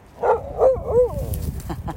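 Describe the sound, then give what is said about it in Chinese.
A pet dog whines in three short, high-pitched, wavering cries, each bending up and then down, followed by a softer stretch of low rustling noise. “我的狗在想说，为什么我不跟它玩？”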